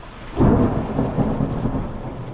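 A thunderstorm with a deep roll of thunder breaking in and rumbling on over a steady hiss of falling rain, fairly loud, with no voices.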